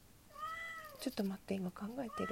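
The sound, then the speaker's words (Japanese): A single drawn-out cat meow rises and falls clearly in the foreground, followed right away by a woman speaking in a low voice. “聞こえないかえー、っと猫が鳴いてるんですすいません”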